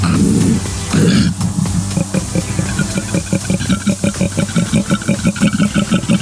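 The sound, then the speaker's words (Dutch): A koala bellows loudly, calling its friends, a deep, rumbling call made of rapid rhythmic pulses like snoring or a revving engine, continuing for several seconds without any talking. “Deze koala roept zijn vrienden...”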